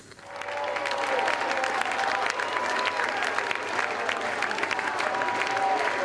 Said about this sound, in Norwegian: Jeg sier gjerne en skikkelig jubel.